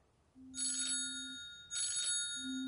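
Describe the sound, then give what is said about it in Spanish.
A mobile phone rings with an incoming call from a number in Argentina, its bright, electronic ringtone sounding in two short bursts of high chiming tones about a second apart, over a steady low hum. No one speaks. “Toma el teléfono en su mano y responde la llamada.”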